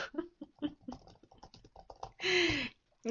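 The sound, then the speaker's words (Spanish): Rapid, irregular tapping of keys on a computer keyboard as a writer types, fairly quiet, followed by a brief louder burst of noise before the typing resumes. “por eso quizá escuchan teclas al escribir, porque pues a él tiene un poco de pena también.”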